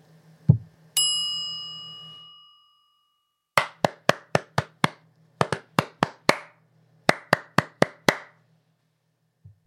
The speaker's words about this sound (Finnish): Sehän meni kaikilla oikein. Taisi olla liian helppo. Minähän juuri taputin käsiäni.